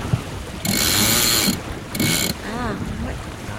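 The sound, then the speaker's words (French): A sailboat winch ratchets in two bursts as a sail is trimmed on a small 8-metre sailboat, a long rapid clicking run followed by a shorter one, fairly loud over faint wind and water noise. “J'essaie quand même de gonfler un peu le hein, pour appuyer euh, un peu ce bateau.”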